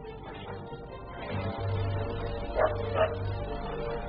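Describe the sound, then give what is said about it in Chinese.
At about 2 p.m., in the empty yard of a concrete mixing plant in Dayingzi township, Linxi county, Chifeng, Inner Mongolia, a dog lets out a quick pair of sharp barks, a fraction of a second apart, rising clearly above a steady low background hum. No one speaks. “下午两点来钟，一阵急促的狗吠声打破了院子的宁静。”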